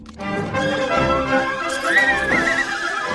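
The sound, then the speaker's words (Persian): A winged horse, which Coyote turned from a black cat, neighs in a loud, rising and falling whinny with a wavering high pitch, backed by a faint rhythmic clatter like hooves. No one speaks. “کایوت با یه دستور دیگه گربه سیاه و تبدیل به اسب بالدار میکنه”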